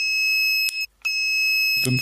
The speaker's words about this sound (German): Und wenn ich mich nicht, wenn ich mich vertan haben sollte, dann hört man jetzt irgendwo einen Nachbarn ins Telefon klingeln.